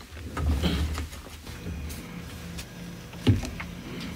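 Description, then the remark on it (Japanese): A Pro Tools audio workstation powers up: a couple of soft mechanical clunks over a steady, low whirring cooling fan hum that stays fairly quiet throughout, as it has only just been switched on. “というわけでさっきより少しノイズっぽくなったと思います。えー、プロツールスのファンの音です。”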